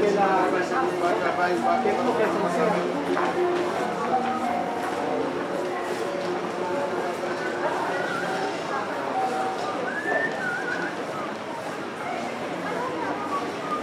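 Busy shopping centre aisle ambience in the middle of the forum, in an aisle with restaurants and clothing shops: a steady wash of overlapping crowd chatter and indoor bustle, with scattered clatters and tones rising briefly out of the constant background hum.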